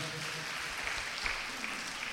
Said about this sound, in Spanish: Gloria al Señor. Démosle un aplauso a Cristo, por favor, en esta tarde.